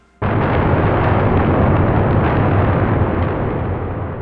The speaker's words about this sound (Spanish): Es que. Es que claro, es que damos paso al trueno y, y, pasa lo que pasa. El trueno nos deja así.